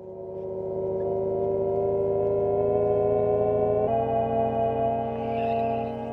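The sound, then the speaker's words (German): An expensive electric Jaguar SUV's artificial driving sound: a steady, synthetic hum of layered sustained tones that shifts slightly in pitch partway through, holding at an even volume with no voices. “Wer eine teure Geländelimousine fährt, in diesem Fall einen elektrisch getriebenen SUV von Jaguar, ist mit folgendem Sound unterwegs.”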